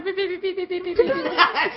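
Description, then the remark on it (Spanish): A voice imitating a little girl crying, with rhythmic, whiny sobbing pulses that break into a wavering wail toward the end, fairly loud. “A la niña llorando ahí.”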